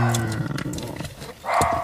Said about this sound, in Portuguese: Já, são os meus cães loucos a ladrar.